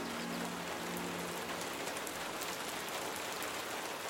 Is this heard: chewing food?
no